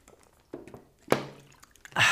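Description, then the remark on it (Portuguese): A few wet, liquid sips and a swallow of water, ending in a short breathy exhale. No speech. “em algum momento do podcast, a gente vai tomar um gole de água juntos.”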